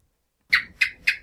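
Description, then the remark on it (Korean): A real lizard chirps three times in quick, evenly spaced succession, each call a sharp, bright click-like chirp that fades quickly, heard alone after a moment of silence. “아, 그 진, 진짜 도마뱀 소리.”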